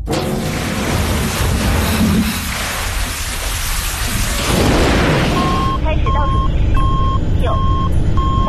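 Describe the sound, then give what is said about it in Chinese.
The engine of spaceship B257 starts up as it nears its landing orbit near a Mars base: a dense, hissing roar that swells partway through, followed by a row of steady, high electronic beeps repeating at an even pace over the rumble. “调整，启动引擎。”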